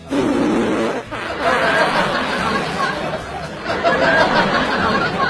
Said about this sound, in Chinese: 早上穿着超短裙，现在在公交站牌等车，突然间想放屁，左右瞅瞅也没有人，就放松了一下，